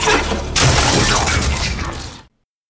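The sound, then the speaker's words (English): A loud crash as the player smashes a small computer terminal in a video game, the one the character Samuel Hayden speaks through, with a sharp impact followed by about two seconds of clattering, rattling debris and breaking parts before it cuts off abruptly. “And that smash you hear at the end is uh, you smashing the little uh, computer terminal that Hayden's talking to you through.”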